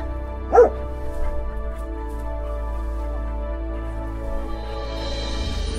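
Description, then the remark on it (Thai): A single short, clear bark from a mother dog rings out near the start, followed by a steady low background drone with no further barking or whimpering. “แม่สุนัขกล่าวอย่างซาบซึ้งใจ”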